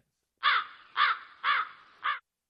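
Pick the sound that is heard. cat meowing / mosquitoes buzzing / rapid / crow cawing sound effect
crow cawing sound effect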